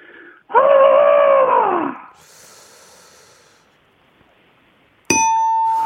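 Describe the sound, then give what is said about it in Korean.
A loud, drawn-out voiced trumpeting call with a rising-then-falling pitch, a person imitating an African elephant over the telephone, followed by breathy noise and then a sharp ringing ding. “자, 아프리카 코끼리입니다.”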